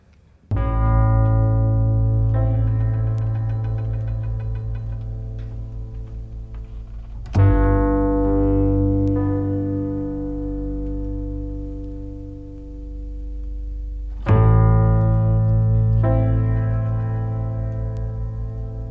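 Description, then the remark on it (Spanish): Music plays, a song by a Basque popular musician from Gipuzkoa: long, sustained harmonic chords, loud, with a new chord entering about every seven seconds. No vocals are heard, only the held instrumental tones swelling and slowly fading. “…, que nos regaló temas como este que va a sonar a continuación y que tiene nombre de inicio de cuento”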